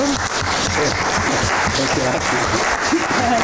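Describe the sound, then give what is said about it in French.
Sustained audience applause, a dense steady clatter of many hands clapping at an even loudness throughout, with a few voices and cheers faintly mixed into the crowd noise. “Je pense qu'on peut vous applaudir de nouveau.”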